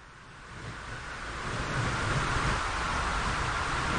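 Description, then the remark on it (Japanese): Wind blows steadily on the way back from a hospital, a broad rushing hiss that swells gradually over the first couple of seconds and then holds at a strong, even level with a low rumbling undertone. “病院からの帰り道、風が吹いてきました。”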